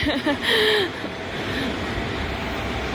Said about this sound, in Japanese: 電車が来ますすいません